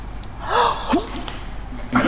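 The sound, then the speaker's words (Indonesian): Three short, forceful breath bursts pushed out from a held throat in the trumpet player's 'cough technique', each a throaty huff like a stifled cough, held back yet still strong, fairly loud with pauses between, with no talking. “itu kagak batuk kita tahan tahan tapi masih kenceng”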